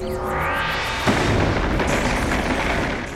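A thunderous lightning-storm effect of Eneru's Mamaragan attack: a rising crackling charge gives way to a sudden loud boom about a second in, followed by a sustained rumbling, crackling roar that slowly fades. No voices.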